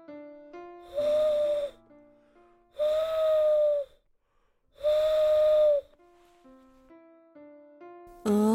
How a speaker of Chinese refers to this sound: 哦，原来是猫头鹰的声音。